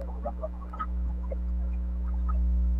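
A steady, loud electrical buzz drones low throughout, like line interference on a call, with faint scattered crackles and chirpy blips over it and no one speaking.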